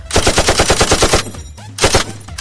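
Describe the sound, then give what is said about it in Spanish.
A machine gun sound effect: rapid bursts of automatic gunfire, loud, with evenly spaced rattling shots for over a second, a brief pause, then another short burst. “y yo tengo aquí una metralleta, vamos a probarla, mira.”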